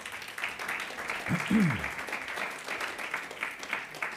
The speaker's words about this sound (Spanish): Dele un aplauso al Rey, por favor.